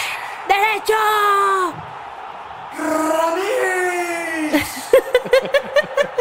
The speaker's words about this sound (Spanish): Y escuchen el graderío que está enardecido, gritando, gritando que esto es.